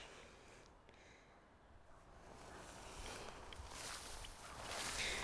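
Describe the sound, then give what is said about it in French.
Soft, steady footsteps crunch along outdoors as a person continues walking, quiet, over a constant rustling background that slowly grows louder. No one speaks. “je continue ma marche.”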